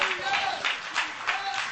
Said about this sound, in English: Let's stand and clap our hands in praise to the Lord. Hallelujah. Thank you, Jesus.